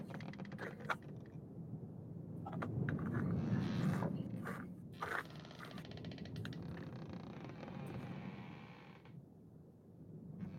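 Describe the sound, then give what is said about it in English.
Dice clatter and tumble across a hard surface, a scattered run of sharp little clicks and knocks over a steady low hum, fairly quiet. “This is the one situation where I get to use the dice you got me for Christmas”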